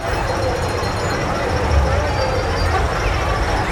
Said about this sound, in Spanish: Ahorita van a escuchar muchísimo ruido. porque está en la sensibilidad alta. Escuchen nada más. Bueno, esto es la Ciudad de México. Así es como grabo yo mis podcasts con este desmadre habitual, perdónenme la palabra. Escuchen.